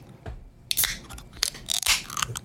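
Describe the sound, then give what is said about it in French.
A can of Samuel Adams beer opens: sharp metallic clicks and a snap as the tab is pulled, followed by a bright burst of fizzing hiss. No one speaks. “Et oui, c'est une canette.”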